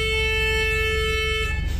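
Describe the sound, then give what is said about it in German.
A car horn blares at people in city traffic in one long, steady honk lasting well over a second, loud, over a low rumble of engine and traffic noise. “Leute anhupen ja. ist nicht so gut.”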